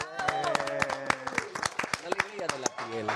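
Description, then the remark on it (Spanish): A small group claps in quick, irregular bursts of applause, fairly loud, while voices talk and cheer "Bravo" over the clapping throughout. “Aplausos.”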